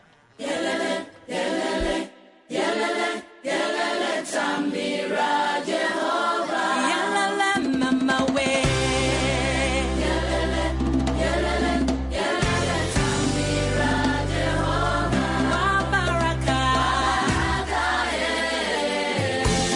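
A song sung with a children's choir: a few short vocal phrases separated by brief pauses, then fuller singing continues over a steady band with deep bass, loud.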